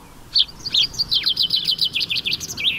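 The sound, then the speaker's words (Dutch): A common chaffinch sings a single bright, rapid phrase of repeated chirping notes that tumbles along and ends in a quick flourish, the "suscuit" ending sung only in Flanders, clear against a quiet background. “dat is een vink, hè? Dat is een suscuit, hè?”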